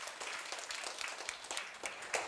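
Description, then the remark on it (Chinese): An audience gives warm applause in thanks to the resident master (abbot) who is about to speak: a dense, steady patter of many overlapping claps with a few sharper ones standing out, fairly soft in level and continuing throughout without any talking. “那首先我们先请我们的一个住持师傅来为我们先开示几句，好，那我们以热烈掌声哈，感恩我们师傅。”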